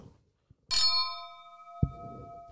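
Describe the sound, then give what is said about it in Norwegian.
A church bell strikes once with a bright clang, its metallic tones humming steadily for well over a second, then a dull thump and rustling noise come in beneath the fading ring. “Og så skåler vi med kirkeklokka”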